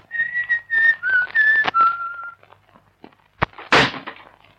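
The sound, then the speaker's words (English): A person whistles a short tune of several clear, sliding notes for about two seconds, imitating a man who whistled on the stairs, then a quiet pause before a couple of sharp, heavy thuds of a door slamming shut. “He was whistling.”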